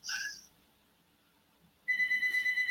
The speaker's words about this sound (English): Sorry, guys, my house phone is ringing. Who even uses a house phone? anymore. It's just plugged up for no reason. Hopefully, it'll stop ringing in a second.